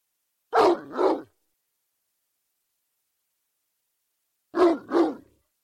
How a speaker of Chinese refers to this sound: 那条大黑狗在院子里低低的呜咽了几声，似乎在告诉主人它回来了。